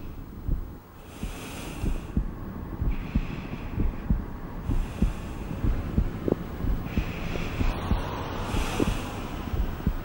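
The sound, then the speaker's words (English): A steady heartbeat thumps in a quick, regular rhythm, muffled, while soft rushing breaths swell and fade every couple of seconds over a constant low hiss. “a battery of detectors monitor and record the rate and depth of breathing, heart rate and blood oxygen levels, and the electrical activity of every heartbeat.”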